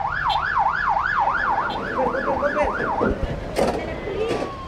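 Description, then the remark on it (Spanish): A fire truck siren wails loudly in rapid rising-and-falling sweeps for about three seconds as more water tanker trucks arrive in a line outside a market fire in the Merced Balbuena neighbourhood, then breaks off into harsh bursts of street and engine noise as vehicles pull in. “Afuera, llegaban más pipas, así en fila.”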